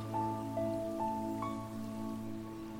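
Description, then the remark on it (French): Steady water sound like a flowing stream, a continuous wash of noise running throughout, with soft sustained tones and occasional gentle chime-like notes layered on top. “Tu avances encore et à un moment, tu entends le bruit d'un cours d'eau.”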